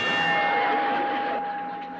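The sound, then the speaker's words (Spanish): A bell is struck and rings out with a sustained metallic tone, its bright overtones lingering and slowly fading after the strike, loud with no voices over it. “Hay alguien pegándole una campana.”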